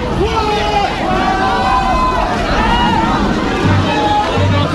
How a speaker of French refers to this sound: de ce côté-là, il y a des gens qui chantent des slogans.